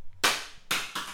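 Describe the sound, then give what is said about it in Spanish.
A small kitchen light, stuck on with glue, drops in a home kitchen and clatters, with one sharp, bright impact followed by two quicker knocks as it bounces, all loud and without any voices. “Una luz que se pega en la cocina así como con pegamento.”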